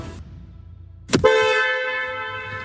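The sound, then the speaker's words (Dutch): A single long Mercedes car horn blast sounds loud over a low engine rumble, holding a steady bright tone for over a second after a brief burst of noise. “Ja, nee, ik wil graag de klakson.”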